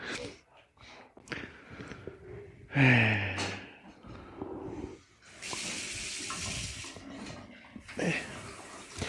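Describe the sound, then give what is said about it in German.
A stovetop espresso maker brewing espresso on a stove gurgles and sputters with hissy, watery bursts that come and go, while people talk intermittently around it. “Was ist denn da auf deinem Herd los? Hast du dir gleich einen, ähm, einen richtigen Espresso gekocht”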